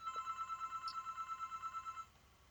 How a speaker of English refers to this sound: Sorry, I'm at my she... home office. There's a yeah, phone going